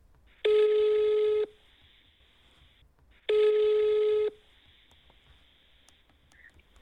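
Two ringback tones on an outgoing phone call, each a steady mid-pitched buzzy tone lasting about a second, separated by a pause of roughly two seconds, heard alone with no talking.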